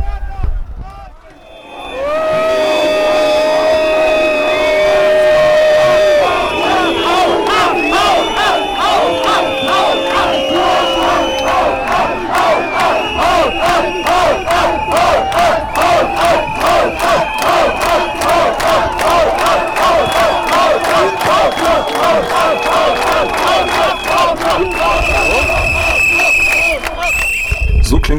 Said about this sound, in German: Nach circa zwei Stunden versuchten die Nazis dann doch, eine Rede zu halten, was jedoch im wütenden Lärm der Gegendemonstrantinnen und Demonstranten unterging.